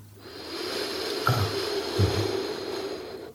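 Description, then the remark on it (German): A steady, hoarse rushing breath drawn slowly in through a narrowed throat, as if through a straw, sounding like ocean surf, moderately loud, with two brief soft bumps partway through and no talking. “So wie, ich, ich bin nicht so ein Fan von Bildern, wenn ich selber unterrichte, bis auf einem, und das ist dieses, dass man sich vorstellt, dass das, äh, das Meeresrauschen und man atmet wie durch einen Strohhalm.”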